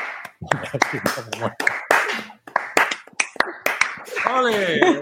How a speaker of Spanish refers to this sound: Em, antes de nada, eh, yo necesito unas palmas o algo,